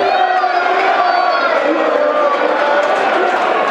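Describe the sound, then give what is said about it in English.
A large football stadium crowd sings the 'EIO' chant after a goal makes it 2-0, a loud, steady wall of massed voices holding sustained pitched notes without a break for the whole stretch. “There's a song we haven't heard for a long time the EIO song.”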